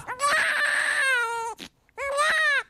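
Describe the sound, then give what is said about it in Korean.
A newborn baby boy, born in Korea, wails loudly in two long, strained bursts with a brief gasp between them, the cry piercing with a raspy, quivering edge. “그리고 지영의 배가 불러오면서 둘은 한국에 머물렀고 둘의 아기도 태어났다.”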